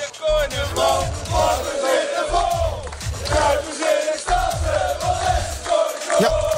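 A large crowd of football fans chanting and roaring together on the terraces of Tirana, warmed up by former Feyenoord player and coach Mario Been before the Conference League final against AS Roma; loud and continuous, with rhythmic surges of massed voices and no individual speech standing out.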